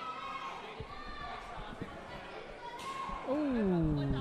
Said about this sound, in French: Ça, mesdames et messieurs, c'est une claque.